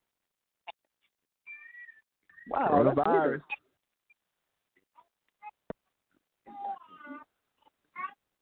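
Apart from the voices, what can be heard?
dogs howling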